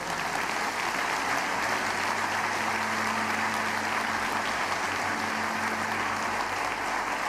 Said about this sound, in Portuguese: Você pode dar um aplauso bem forte ao Senhor.